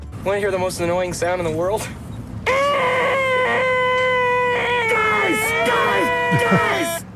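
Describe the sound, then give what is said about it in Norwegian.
Jim Carrey as Lloyd Christmas in the film Dumb and Dumber makes the world's most annoying sound: a sustained, grating high-pitched vocal whine held steady for several seconds after a shorter wavering squeal, loud, with low rumbling noise underneath. “Dagens lyd var verdens mest irriterende lyd fra filmen Dum og dummere.”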